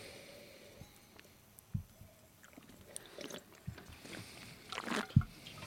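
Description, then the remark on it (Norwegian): Quiet, wet mouth sounds of wine being slurped and spat during a wine tasting: scattered short squishy clicks and swishes, then a longer airy slurp with a sharp wet burst near the end. No one speaks. “Og det er altså Det er lov å slurpe når man smaker vin.”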